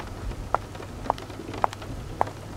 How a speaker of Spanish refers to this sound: Unas cuantas gotas hacen sonar las tejas de barro y uno que otro ventanal del lugar. El ruido del tranvía se opaca con el sonido de la lluvia ya presente